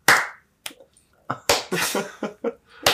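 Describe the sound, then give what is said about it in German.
A single person claps their hands slowly, about nine sharp claps at an uneven, unhurried pace, each crack ringing briefly before the next, with no talking. “hat in die Hände geklatscht und gesagt, so machen wir's er, ist, er ist langsam aufgestanden, hat langsam angefangen, ah, ja, Hände genau.”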